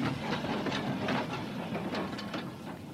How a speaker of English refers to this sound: It's not ours, is it? No, darling, it's the number 42. There'll be another tram in a minute or two.